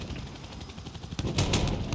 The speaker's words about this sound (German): Greife mit 30 mm geschossen an, jetzt geht's rund. Feuer, Feuer, Feuer.